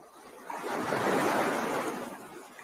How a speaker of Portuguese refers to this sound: Eu queria que vocês se conectassem com esse barulhinho das ondas né, que vocês pudessem trazer memórias bacanas de um dia na praia.